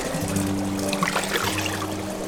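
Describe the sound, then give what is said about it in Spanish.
Water pours steadily into a bathtub for a bath, a continuous splashing rush with a low hollow drone beneath it, filling the whole short stretch without pause. “El agua está increíble.”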